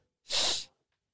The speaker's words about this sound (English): I don't know why he's sniffing.